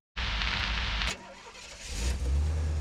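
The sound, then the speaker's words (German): A taxi's engine in Paris cranks with a loud, raspy whir for about a second, briefly settles, then rumbles up into a deep rev, fairly loud. “Mit dem Taxi durch Paris.”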